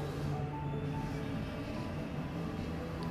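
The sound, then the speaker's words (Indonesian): A motorcycle passing by rumbles steadily, a continuous low droning hum with no rise or fall over the few seconds, and no one speaking over it. “ini motor lewat nih ganggu banget nih”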